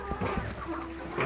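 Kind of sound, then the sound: animal, laying hens clucking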